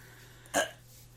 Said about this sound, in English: Stop burping.